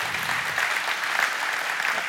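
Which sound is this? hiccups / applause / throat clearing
applause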